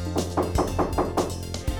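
In a Little Red Riding Hood story, the wolf knocks on the wooden door of grandmother's cottage: a quick, steady run of about eight sharp knocks over a low sustained hum, with no voices.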